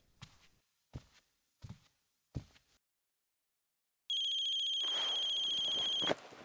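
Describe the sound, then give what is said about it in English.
Four slow footsteps, then a loud mobile phone ringtone from a phone in a man's jacket pocket bursts in with a steady, high electronic warble that lasts about two seconds before cutting off abruptly. “There's a phone in Hector's jacket pocket.”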